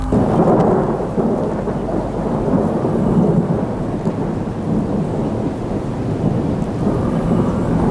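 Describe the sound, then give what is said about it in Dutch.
A continuous, heavy low rumble of thunder rolls through a storm, steady and loud for several seconds with rain hissing underneath and no voices. “Druipende oren plat tegen de donder.”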